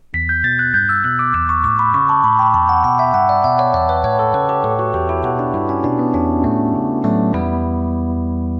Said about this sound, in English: The iconic descending keyboard line is literally just working its way down the E Dorian scale.